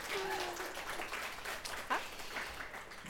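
A short burst of applause for two guest authors and illustrators at an interview event in Lillehammer, steady dense clapping lasting about three seconds with a few brief high-pitched whoops or whistles mixed in.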